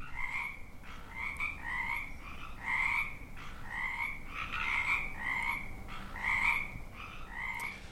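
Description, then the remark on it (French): A steady chorus of frogs croaking in repeated rhythmic pulses, roughly one call per second, with several animals overlapping over a faint background hum. No voices. “Ce sont c'est le son des grenouilles”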